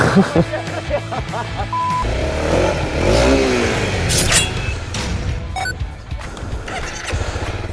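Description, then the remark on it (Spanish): A motorcycle engine revs up and down in pitch, then a brief clattering scrape cuts in as the bike slides, followed by rougher mechanical noise. “No, se, se ha resbalado la moto.”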